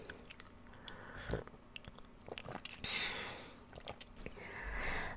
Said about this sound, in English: I'm just sitting here, I'm sipping coffee now.